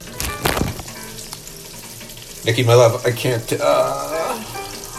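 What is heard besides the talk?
meatballs sizzling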